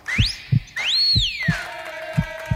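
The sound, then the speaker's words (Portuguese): On a Paraíba radio show, a whistle glides upward, then swoops in a long rising-and-falling slide over a steady thumping heartbeat effect, the low beats pulsing in pairs throughout. “Esse assobio acompanhado das batidas do meu coração radiofônico não tem pra ninguém na história da, da rádio da Paraíba.”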